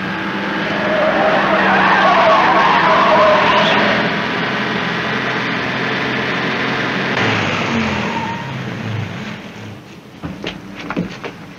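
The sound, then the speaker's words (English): A car roars past at speed, tires skidding and squealing loudly for several seconds before the engine noise settles and fades, ending with a few sharp knocks. “Step on it, driver.”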